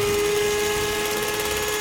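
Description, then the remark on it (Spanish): An electric mixer whirs at a steady, high-pitched drone. The motor hums with one sustained tone and keeps an even loudness for about two seconds. No one speaks over it. “¿Es, una batidora?”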